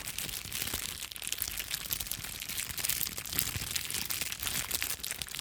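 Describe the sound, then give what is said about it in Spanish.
A cellophane bag is crumpled slowly, giving a dense, steady stream of fine crackles and pops that sounds like a crackling fire, with no voices. “pero si yo lo hago así normal, ustedes van a poder identificar que esto es una bolsa de papel celofán en la que se envuelven ciertas cosas, pero que al hacerlo de forma lenta, repito”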